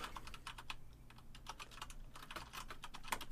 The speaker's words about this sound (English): Sounds like you're just typing.